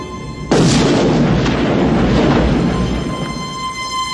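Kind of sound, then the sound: sound effect, gunshot sound effect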